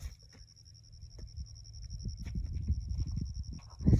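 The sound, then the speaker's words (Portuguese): Frogs croaking at night by a dirt road in Bueno Brandão, southern Minas, form a steady, high, faintly pulsing chorus, while low gusts of wind rumble underneath and swell louder toward the end. “Fora isso, que vocês estão ouvindo são sapos, o vento.”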